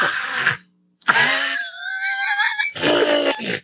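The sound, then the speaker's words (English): A person vocally imitates a rough, hoarse bird screech in three raspy bursts, with a short pause after the first and a strained, warbling middle section, fairly loud. “I don't know what type of sound that was coming out of that bird.”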